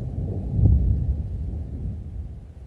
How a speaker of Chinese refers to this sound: 那么，请播放一下这样一个例子，这个是主震的到来，汶川大地震主震。再注意听，余震到来了，又一个余震。